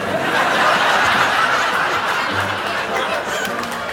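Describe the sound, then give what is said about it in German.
A crowded flock of chickens clucks and squawks continuously as they come flying in through an office door at a police station, a dense, loud, overlapping chatter of many birds with no pauses or speech. “Daraufhin öffnet sein Assistent die Bürotür und lauter Hühner kommen hereingeflogen.”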